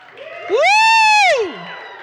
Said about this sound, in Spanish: Griten de alegría ustedes de corazón puro. ¿Podemos dar un grito al Señor? Pero que se oiga.